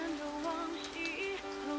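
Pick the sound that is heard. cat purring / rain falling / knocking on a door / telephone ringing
rain falling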